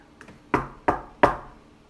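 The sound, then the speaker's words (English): Three firm knocks on the wooden door of a botanist's cottage in a village, evenly spaced, each with a sharp attack and short decay, preceded by a couple of faint soft taps. “So they all walked across the village and to the botanist's cottage and knocked on her door.”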